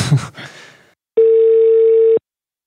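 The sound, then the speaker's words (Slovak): A single steady telephone ringback tone of an outgoing call placed from a studio sounds for about a second, a clear mid-pitched hum, preceded by a brief burst of muffled noise. “ja vám volám zo štúdia podcastu Na rovinu o podnikaní”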